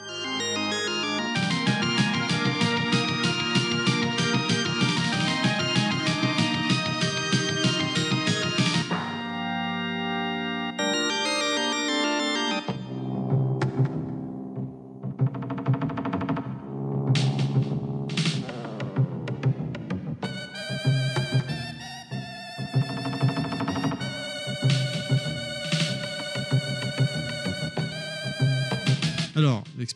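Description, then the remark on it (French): Synthesized 16-bit video game music from the clock tower level of Konami's Castlevania 4 plays loudly throughout, a dense chiptune-like melody that shifts abruptly into a sparser passage before building back into busy, layered tones. “Et donc là, on passe sur le niveau, on reste sur Castlevania 4, mais on va écouter le niveau de la tour de l'horloge.”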